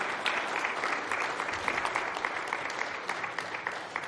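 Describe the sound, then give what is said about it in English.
A church audience gives a steady round of applause to thank a guest before the sermon, many hands clapping in a dense, continuous patter at moderate loudness for about four seconds, with no voices standing out. “Give him a, a round of applause.”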